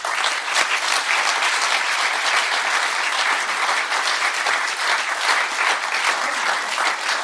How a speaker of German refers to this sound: Übrigens, ich finde bei dieser Gelegenheit macht mal einen Applaus für die Technik-Crew hier.